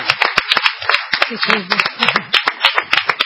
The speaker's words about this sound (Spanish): Un aplauso para la señora Amelita Baltá